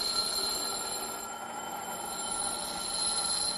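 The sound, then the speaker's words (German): A steady, harsh grinding hiss with a thin high-pitched whine runs continuously as glass is ground on a coarse silicon carbide grinding wheel, with no voices. “Erstmal Schliff an der groben Siliziumscheibe.”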